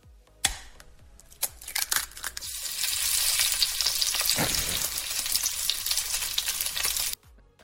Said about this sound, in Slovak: Ale toto bude asi niečo s jedlom, nie? Áno, no, áno. No, no, no, no. Praženička, pekne. Hej, že vajíčka, tak?